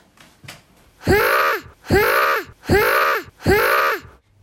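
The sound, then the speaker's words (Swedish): A child imitates a fox with four loud, close, wailing yelps, each rising then falling in pitch, evenly spaced about a second apart with short silences between. “Kan du låta som en räv?”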